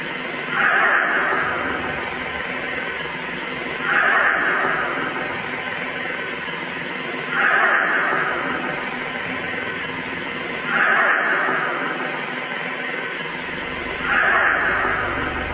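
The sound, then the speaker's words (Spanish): An eerie, distorted wailing cry, a psychophony recorded at the Hospital del Tórax that repeatedly seems to say the name Ana, rises and fades five times at steady intervals, muffled and lo-fi, over a constant hiss of background noise. “Más que un nombre casi es como un grito, como un alarido que puede llegar a distorsionar, está varias veces repetido, dice un nombre, dice Ana.”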